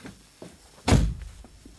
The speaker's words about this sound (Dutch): Doe nou braaf de deur weer dicht, dan kom je dadelijk halen, ja?